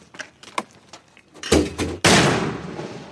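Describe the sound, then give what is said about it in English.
A mortar round is fired by Marines in training from a metal tube set on a tripod: a few faint clicks and two muffled thumps lead into a sudden loud, sharp blast that echoes and rolls away outdoors. “Recently, we watched some Marines train, launching them out of metal tubes set on tripods.”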